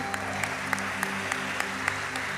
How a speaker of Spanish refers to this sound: Voy a pedirle a, los voluntarios que quiero contarle que hoy los hombres nos están sirviendo, muy bellos ellos, démosles el mejor aplauso.